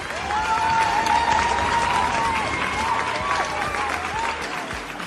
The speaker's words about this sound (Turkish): Yeniden katılımcılarımıza dönecek olursak bölüme başlamadan önce herkesin önünde şunu söylemek istiyorum ki gerçekten çok ama çok büyük bir emek verildi. Bunun için tüm katılımcılarımızı hep beraber alkışlayalım istiyorum.